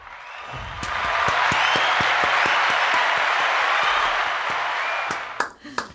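A burst of applause sound effect swells in quickly and holds steady as a dense, bright wash of many hands clapping, then breaks off into a few scattered final claps.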